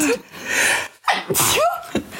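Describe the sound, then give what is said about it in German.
A loud sneeze: a breathy, hissing build-up followed by a sharp explosive burst and a short voiced tail, heard on its own with no talking. “Gesundheit.”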